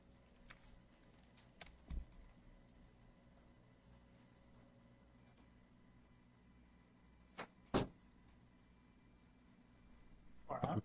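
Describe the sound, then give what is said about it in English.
A door is closed with a sharp thud, preceded by a couple of faint knocks and followed by a brief rattling clatter near the end. No one speaks. “I step away for one second to close the door and total station shutdown.”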